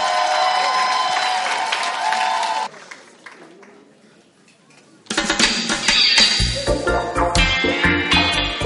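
An audience claps and cheers loudly for a few seconds, the applause fades into a quieter lull, and then music with a steady bass rhythm starts up.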